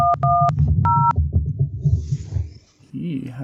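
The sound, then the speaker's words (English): Three short dual-tone keypad beeps from a phone dial pad as someone tries to call a phone, the middle one held a little longer, over a low muffled background rumble with faint murmuring voices. “Oh, it's making a beep sound like I'm calling a phone.”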